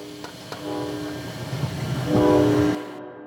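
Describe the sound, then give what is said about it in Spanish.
Special train 766 rumbles along while its horn sounds a long, steady, brassy tone that swells louder toward the end before cutting off abruptly; a couple of faint clicks come early on. “El choque del tren especial 766.”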